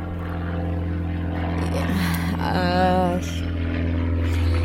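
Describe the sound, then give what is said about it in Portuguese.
A helicopter drones steadily overhead, its low engine hum loud and continuous for the whole stretch, with a brief wavering tone rising above it midway. “Ei, agora vem um helicóptero, mas será que só a gente quer foder o áudio hoje?”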